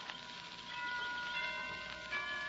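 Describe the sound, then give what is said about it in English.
Tower bells chime with sustained, overlapping ringing tones, lingering steadily over a constant hiss that sounds like light rain. No one speaks. “Those chimes from the tower, they're, they're beautiful, aren't they?”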